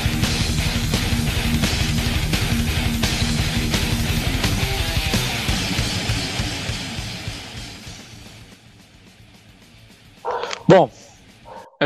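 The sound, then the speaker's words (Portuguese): Busy music fades out, then after a brief quiet a dog barks two or three times in quick succession, fairly loud. “cachorro latindo”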